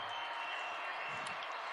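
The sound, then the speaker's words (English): A stadium crowd at a football game in Lincoln involving Millard North roars and cheers on a third down with 5:03 to go, in a steady, unbroken wash of noise, holding at an even level for the whole moment with no single voice standing out. “Listen to the crowd.”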